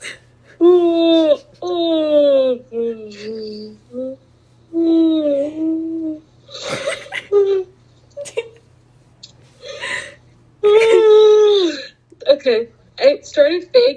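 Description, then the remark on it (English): A person vocally imitates yawning, making several drawn-out, falling-pitch groaning sounds broken up by breathy gasps, fairly loud. “I'm going to imitate the yawning noise and let's no.”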